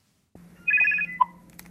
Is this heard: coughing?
no